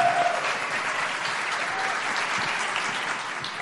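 An audience at a Foro Semana event on the future of artificial intelligence in Colombia applauds on request, a dense wash of many hands clapping at an even, sustained loudness for the whole few seconds, with no voices standing out.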